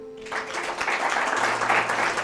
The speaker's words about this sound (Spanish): Así que des un aplauso para usted mismo.